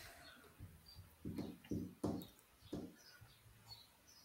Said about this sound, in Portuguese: Enquanto o Sabiá ele canta ali no fundo. Ele é a nossa alegria.